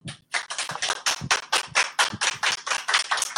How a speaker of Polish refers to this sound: Wielkie brawa.